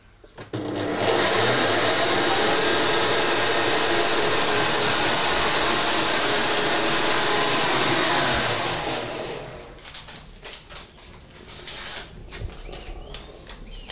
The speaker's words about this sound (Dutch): Ik ga maar een mixer opzetten